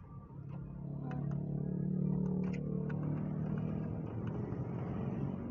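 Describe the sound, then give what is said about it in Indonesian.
A steady low engine rumble and road hum fill the cabin of a moving car as the driver is about to make a U-turn, with faint clicks and light rattles over the constant drone. “bentar aku mau muter balik dulu”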